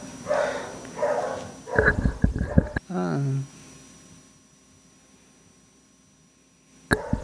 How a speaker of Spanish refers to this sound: Oh, mis perros se volvieron locos. Tía, escuche.